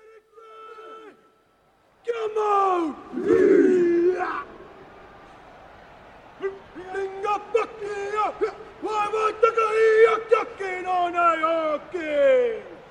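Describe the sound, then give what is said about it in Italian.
A Maori haka, the ritual battle dance and war chant of the Maori people: loud, forceful shouted vocals in rhythmic bursts, with sharp barks, drawn-out cries and sliding yells, rising after a brief quiet opening. “erano appunto il verso universo di battaglia dei, delle popolazioni maori, eh, in questa che abbiamo detto si chiama, in questa danza eh, rituale che si chiama eh, H.”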